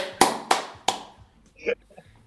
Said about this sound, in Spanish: Así que un aplauso para él, un aplauso grabado.